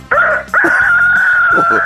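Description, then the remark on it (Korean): A person imitates a chicken crowing in a voice-impression contest on Park Myung-soo's Radio Show: a brief strained cry, then a long, loud, sustained high-pitched call held to the end, with nothing else around it. “닭소리 들어보겠습니다.”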